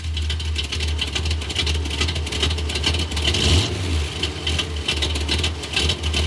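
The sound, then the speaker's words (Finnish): An Audi e-tron Sportback 55 Quattro S-Line drives steadily on a test drive with a constant low rumble and road hiss, swelling briefly in intensity midway as it picks up speed, with no talking. “Seesteiseksi tämän tekee se, että meillä on ollut koeajossa Audi e-tron Sportback 55.”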